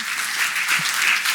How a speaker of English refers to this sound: Pretty good. Pretty good. Thank you. I hope you're clapping yourselves.